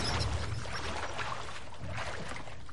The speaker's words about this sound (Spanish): La camilla y el cuerpo se sumergen en el agua de la bañera.